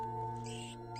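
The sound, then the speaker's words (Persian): Thin, high-pitched squeaking from mice fighting and biting each other, continuous over a steady background hum, with bursts of sharper squeals rising and falling across the second. “چندشتر از این صحنه تو زندگیم ندیده بودم مخصوصا اون صدای جیغ ریز و ناله های اصاب خورد کنه”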